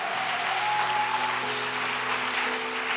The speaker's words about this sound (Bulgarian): О, ако ръкопляскаш, ръкопляска, като че наистина вярваш. О, хайде, дай му слава.